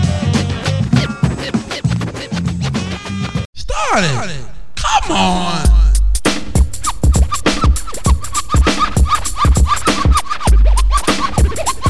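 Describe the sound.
A DJ's turntable record scratching cuts in with quick back-and-forth sweeps over a loud, punchy hip-hop beat, with a brief shouted voice in the mix.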